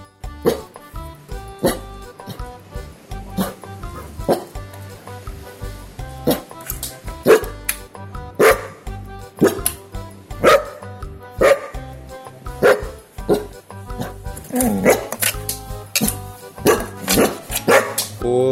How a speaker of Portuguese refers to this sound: Obrigado pelos latidos, Titi.